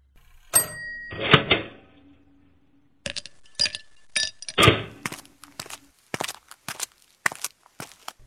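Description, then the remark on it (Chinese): Ice cubes clink and rattle in a glass of cola, a few sharp bright ticks and clatters with short pauses between, ending in a scatter of light taps. Nobody speaks. “这是可乐，加了冰块的，您慢用。”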